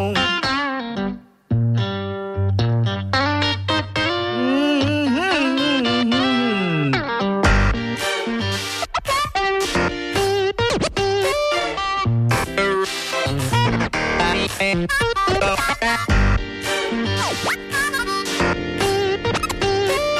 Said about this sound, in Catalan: Són disjòqueis que tracten els plats com si fossin instruments. Mm -hmm. És a dir, mhm. jo tiro el baix, tu tires la bateria, un altre fa una veu... I surten coses com aquestes.